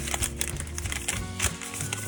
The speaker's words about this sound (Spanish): Bueno, pues en la caja nos encontramos el típico artículo con el plástico este transparente que Apple le pone a todos sus cacharros que se lo vamos a quitar. vamos a quitar el plástico transparente.